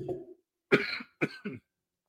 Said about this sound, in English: So clearly, I did not deliver on that promise for less coughing, man. You know, COVID is doing its thing.